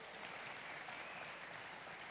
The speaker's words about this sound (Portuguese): Diga, Deus é bom o tempo todo. O tempo todo Deus é bom. Aplauda Ele pela bondade dEle, aleluia.